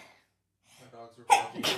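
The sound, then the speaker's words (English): A loud sneeze: a short voiced wind-up breath, then a sharp explosive burst followed quickly by a second, noisy blast. “Bless you.”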